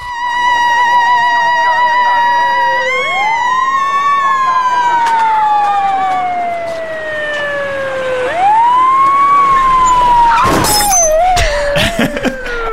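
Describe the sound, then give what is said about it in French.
A loud wailing police car siren sweeps slowly up and down for about ten seconds, then sharp crashing impacts and clattering bursts of a single car having an accident cut through near the end. “Non, c'est une seule voiture. Ok. Qui, qui rentre dans. Qui a un accident Il y a un accident à la fin”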